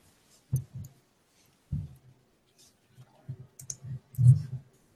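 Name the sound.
call connection drop-out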